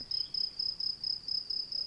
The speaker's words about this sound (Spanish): Este es el sonido de, que tengo yo de llamada en mi móvil, un grillo.